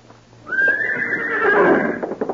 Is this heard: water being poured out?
no